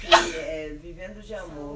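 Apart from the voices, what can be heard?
sneeze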